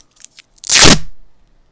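A few faint clicks, then a single loud, rasping rip of tape being torn off to wrap around an object, lasting about half a second before trailing off. No one speaks.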